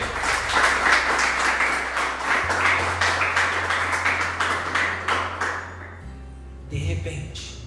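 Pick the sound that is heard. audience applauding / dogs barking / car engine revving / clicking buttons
audience applauding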